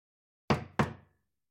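Two firm knocks on a wooden cabin door, Caroline knocking at Stead's cabin, evenly spaced about a third of a second apart, clear, each ringing briefly before fading into silence.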